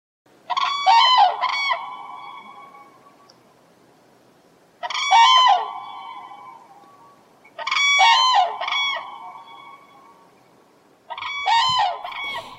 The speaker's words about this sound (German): Hören Sie einen Kranich rufen, freuen Sie sich, dass der Ruf Ihnen Glück beschert.